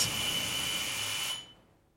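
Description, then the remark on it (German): A doorbell, rung by Romy Schneider, sounds with one steady, shrill electric buzz that holds for over a second, then cuts off and fades quickly. No one speaks. “Romy nickt und klingelt.”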